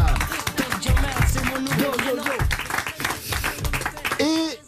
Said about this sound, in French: Nous avons également à vos côtés, et là je demande deux fois plus d'applaudissements bien sûr, celle qui est votre chérie dans le film Le Nouveau Jouet dont on va parler pendant une heure et demie, Alice Belaïdi.